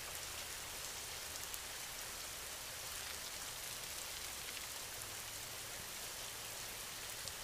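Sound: rain falling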